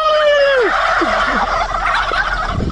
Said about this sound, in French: Alors ensuite, j'ai pensé à une vidéo qui était assez marrante euh, il y a quelques temps, où il y avait un gars qui parlait à un élevage de dindes et qui lui répondait.